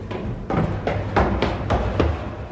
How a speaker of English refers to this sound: Metal stairs, the sound of metal stairs.